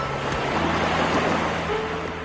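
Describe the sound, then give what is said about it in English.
A steady, hollow rushing like surf, the sea heard through a large conch shell held up to the ear on a beach, holding even and unbroken with a faint low hum beneath it and no voices. “Leo held the shell up to his ear and listened to the sound of the sea”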